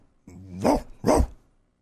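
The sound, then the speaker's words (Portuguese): A person imitates a big dog with two deep, gruff barks in quick succession, fairly loud, preceded by a short low growl-like lead-in. “Vai, imita um cachorrão.”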